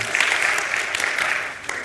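A crowd claps steadily for the intro person, a dense, continuous patter of many hands at fairly even loudness that carries through to the end with no voices over it.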